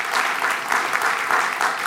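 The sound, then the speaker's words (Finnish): An audience applauds steadily, a dense wash of many hands clapping at once with no pauses, fairly loud and sustained from start to finish with no voices over it. “isot aplodit, iso aplodit”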